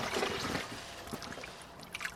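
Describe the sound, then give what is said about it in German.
Steady splashing and sloshing of water as two watering cans are filled from rain barrels in a garden, busiest at first and then trailing into softer gurgles and drips, with no talking. “Ich kann aber auch eben zwei Gießkannen nehmen und die füllen, das mache ich jetzt mal hier, an unseren Regentonnen.”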